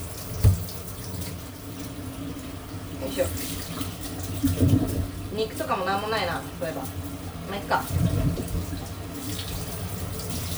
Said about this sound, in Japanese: 包丁洗います